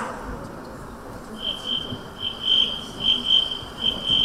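A cricket chirps in steady, high-pitched trilling bursts that start after a brief pause and repeat several times over a low, rumbling background hum.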